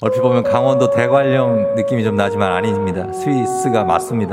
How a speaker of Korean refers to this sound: 들리시죠? 목동들이 양떼를 몰면서 알포론을 연주하고 있습니다. 원뿔형의 긴 관악기, 관악기 길어도 너무 길어가지고 중간에 호흡이 부족하면 큰일 납니다.